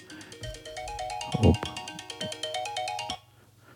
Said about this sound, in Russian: Это мой будильник напоминает, что пора. Пора идти на тренажер.